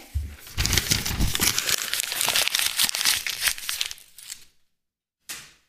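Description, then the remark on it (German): Loud crinkling and crumpling of a second sheet of paper for about four seconds, a dense crackly rustle, then silence and a brief final rustle, as the paper is crumpled and thrown backward over the head. “Und mit einem, ich will, dass du es mit einem zweiten Papier machst und ich will, dass du es über, über den Kopf nach hinten wirfst.”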